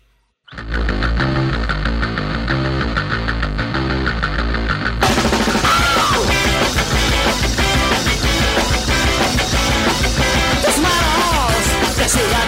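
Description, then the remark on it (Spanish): A garage rock song kicks in with a thin, muffled-sounding riff, then bursts into a full, loud, raw band sound with driving drums and distorted guitars about five seconds in. “Escuchamos este tema, …, …”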